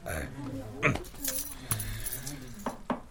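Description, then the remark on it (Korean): A front-gate key on a ring jangles as it is handed over, in a few quick, bright metallic bursts, a short rattle near the start and more toward the end, with a voice murmuring underneath. “자, 받아요 대문 열쇠.”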